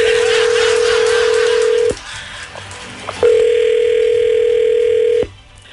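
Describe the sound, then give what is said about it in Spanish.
A telephone line tone sounds twice as someone dials and calls a phone number: each steady, low-pitched hum lasts about two seconds, separated by a short quiet gap with faint clicks and hiss. No one speaks. “a ver, déjame marcarle, no hables, ¿ok?”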